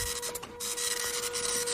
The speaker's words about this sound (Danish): Så skulle jeg gerne have lidt, øh, lidt lyd. Lidt printerlyd.